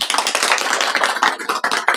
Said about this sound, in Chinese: 也是第一次有那么多的观众，我们在一起来交流，来先听一听大家的掌声，感受一下我们现场的温度啊。